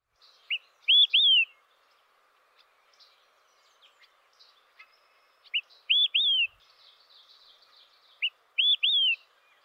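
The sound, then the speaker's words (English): An olive-sided flycatcher sings its loud, clear three-note whistled phrase three times, a short lead note followed by two slurred notes, spaced several seconds apart with faint background birdsong. “The olive sided flycatcher also sings the same song across its range. It sounds like he's yelling, Quick, three beers!”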